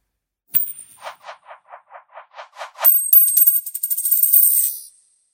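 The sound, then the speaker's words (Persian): A coin strikes a hard surface with a bright ring, then bounces in a steady series of small taps before spinning up into a fast, accelerating metallic whir that rattles down to silence. “بریم یه صدای باحال از پیچ و تاب خوردن یه سکه بشنویم و برگردیم”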